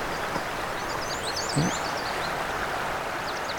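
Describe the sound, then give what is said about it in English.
A brief indigo bunting song of quick, high, paired chirping notes over a steady rushing background hiss like flowing water, on a trail along a river. A few fainter high notes follow near the end. “Let's heard a brief uh, indigo bunting song too.”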